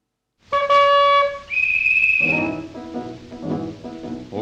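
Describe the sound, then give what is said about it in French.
A traffic officer at a crossroads by the Galeries Lafayette and boulevard Rossement, directing pedestrians and vehicles across in turn, blows a pea whistle: a loud, shrill blast, then a second, higher sustained note, before a jumble of voices takes over in the background. “coin des galeries Lafayette et du boulevard Rossement à coups de sifflets à roulettes et à coups de bâton blanc.”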